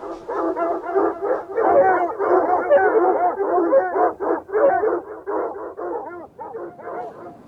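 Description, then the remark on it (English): Several hungry, hostile dogs with red eyes and bristling fur bark aggressively in a dense, overlapping chorus, with some howling and yipping mixed in. The barking is loud and keeps going without a break for the whole stretch. “On the other side of the dogs, 300 miles on the other side of the dogs, is the Black Sea.”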